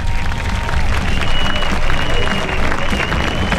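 A crowd applauds steadily for a few seconds, dense overlapping claps forming a continuous, fairly loud wash with a murmur of voices underneath.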